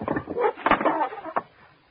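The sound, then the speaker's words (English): A closet door is opened and shut, with a short run of wooden rattles and creaks ending in a firm close, then quiet, as someone standing on a chair puts a package up in a mother's closet. “I'll just stand on this chair and put it up in Mommy's closet.”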